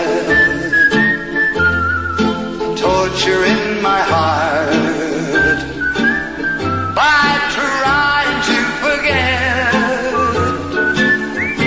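A melodic whistled tune carries over a full band arrangement with steady bass notes, the whistling sliding and wavering in pitch at a moderate, even loudness with no voices.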